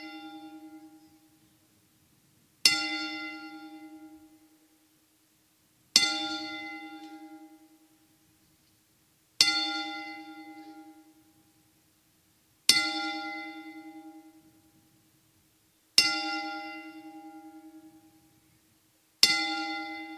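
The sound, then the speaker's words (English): A single bell is tolled ten times in memorial tribute, slowly and steadily, each loud, resonant strike ringing out and fading before the next comes about three seconds later, with no voices. “Would you please rise as we toll the bell 10 times?”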